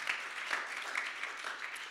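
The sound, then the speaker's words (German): Scattered, hesitant clapping from an audience, steady but not very loud, with individual claps standing out now and then; no one speaks. “ich weiß, dass der ein oder andere zögerlich klatscht, weil wir wachsen da ja rein in das Ding.”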